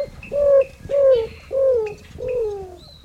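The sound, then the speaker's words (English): A greater roadrunner gives a slow series of four low, descending coos, each a smooth drawn-out note spaced about half a second apart, clear with no other voices. “Have you ever heard a roadrunner sing? That's the maker of this cooing sound.”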